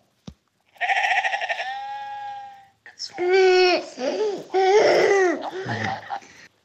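A sheep bleat played by an audio pen tapped on a children's farm picture book: loud, a long wavering baa, then after a short pause a few more quavering bleats in quick succession, with no talking over them.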